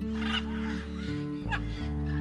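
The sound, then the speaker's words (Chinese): Two seagulls squabble over a plastic bag at sea, with a few harsh, honking squawks in short bursts, heard over a steady low humming drone that runs underneath throughout. “这次遇到了海鸥，一只海鸥把塑胶袋小兔叼起后，另一只海鸥就来凑热闹。”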